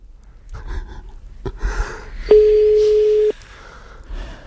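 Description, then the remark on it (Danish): A single steady telephone ringback tone, a clear, loud one-second beep heard down the line as a caller rings a number again, with faint rustling and breathy handling noise before it and quiet again afterward. “Okay, så ringer jeg op igen.”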